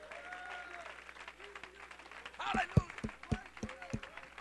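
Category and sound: crowd, audience clapping hands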